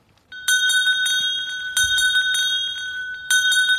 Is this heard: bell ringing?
yes